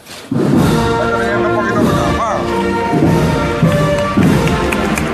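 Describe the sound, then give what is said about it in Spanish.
A brass band plays the Spanish royal anthem, the Marcha Real, as the palio of María Santísima de Guadalupe makes its exit: a slow, solemn anthem, loud, with sustained horn chords and soft drum thumps running steadily throughout. “Pues en este momento acaba de efectuar su salida el palio de María Santísima de Guadalupe, que ahora suena la marcha real.”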